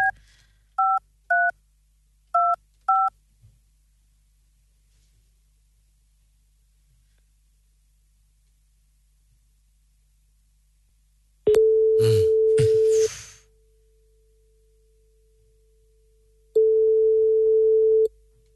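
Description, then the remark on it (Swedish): Six quick touch-tone beeps dial a number, then after a pause a steady ringback tone sounds twice, spaced several seconds apart, as the call rings through on the line. “Så vi ringer upp på en gång och kollar om vi kan få möjlighet att ta den då.”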